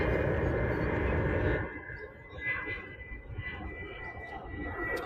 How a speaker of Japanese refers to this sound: 飛行機が、飛行機が。